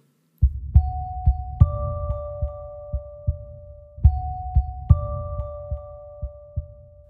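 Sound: loud heartbeat sound effect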